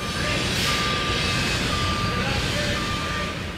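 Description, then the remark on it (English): Construction site noise where a new history center is being built in the heart of a neighborhood: a truck's reversing beeper sounds in steady, repeated tones over a loud, continuous rumble of engines and machinery. “That's the sound of the new $20 million History Center that they were still building at the time.”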